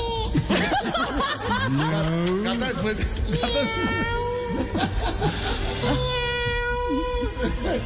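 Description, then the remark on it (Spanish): A cat meows over and over, a string of drawn-out, wavering meows that rise and fall in pitch, with some faint human vocal sounds mixed in. “Ah, es el gato.”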